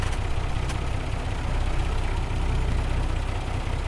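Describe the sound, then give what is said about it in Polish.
A Star truck's diesel engine idles steadily, heard from inside the cab at midnight before a short drive around a hall off public roads, a loud, continuous low rumble with a throbbing pulse and no voices. “Była 12 w nocy, więc tak jak mówiłem, zapraszam Was teraz na koniec do kabiny Stara, na krótką przejażdżkę.”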